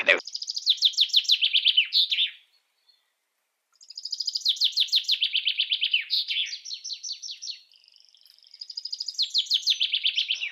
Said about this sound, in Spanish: Pero un canto de un pajarito y decir... Para, parar, fíjate, ahí te voy a poner un cantito de pajarito.